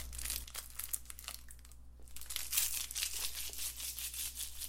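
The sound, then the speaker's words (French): Crackly crinkling of a candy wrapper being unwrapped, a busy stream of small plastic crackles and rustles with a brief pause near the middle, no voices. “Un petit bonbon pour la route.”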